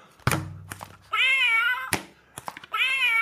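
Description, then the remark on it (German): A toy cat sound box lets out two electronic meows, each a steady, sustained tone, with knocks and thumps from the box being handled before each one. No one speaks. “Diese blöde Katzenbox, die gestern noch funktioniert.”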